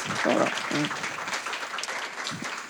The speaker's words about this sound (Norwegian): Ja, fikk dere to applaus.